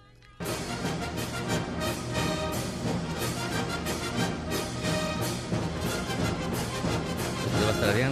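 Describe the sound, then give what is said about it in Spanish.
A recording of a classical orchestral overture: loud, full orchestral music bursts in after a brief quiet moment, with dense strings and brass sustaining a grand, swelling passage that grows slightly stronger toward the end. “Es el tema de la obertura 1812 de Piotr Ilyich Tchaikovsky”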